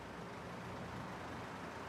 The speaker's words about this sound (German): Draußen hängt ein roter Lastwagen an einer der beiden Zapfsäulen der Firma Schweiger.